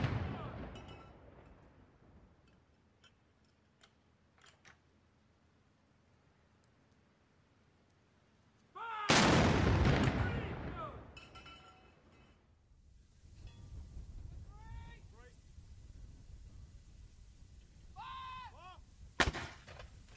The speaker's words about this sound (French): On va écouter quelques coups de canon qui sont tirés donc en son hommage. 96, de part et d'autre du Royaume-Uni.